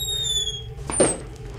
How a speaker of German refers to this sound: Okay, sie lässt sich öffnen. Die Falltür lässt sich öffnen.